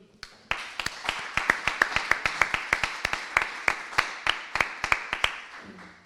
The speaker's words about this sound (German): Wir freuen uns, dass er die zweite Hälfte mit einem Lied eröffnet. Klatscht bitte für Tillmann Birr.